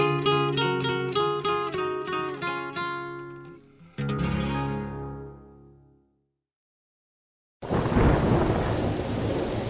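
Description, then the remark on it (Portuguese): A few seconds of ringing musical chords fade into brief silence, then a loud, dense roar of a thunderstorm with heavy rain bursts in and fills the final seconds. “Nossa, amor, essa tempestade horrível e você aí nessa calmaria.”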